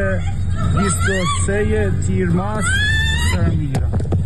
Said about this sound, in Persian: این صدای جیغ کشیدن زنی است در برابر حمله زنی دیگر که به زور میخواهد او را به سوی اتومبیلی بکشاند تلاشی که نمیدانیم به چه سرانجامی میرسد